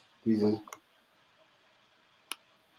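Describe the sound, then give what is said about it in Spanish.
Two crisp computer mouse clicks, one right after a brief murmur of voice and the second alone about a second and a half later, against a faint quiet background; the click does not respond at first and lags while recording. “de Jürgen que le doy clic y luego no jala y tarda, ¿no?”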